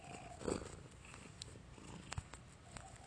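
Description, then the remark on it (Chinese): Cats purring at feeding time in a low, steady rumble that runs throughout, with a few brief soft clicks and rustles on top and no one speaking. “通常这个时候，它们就会开始叫，然后开始呼噜，开始互相舔毛，就整个很忙。”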